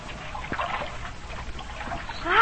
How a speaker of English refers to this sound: Great Scott, there's two feet of water in the hold, and we're shipping more.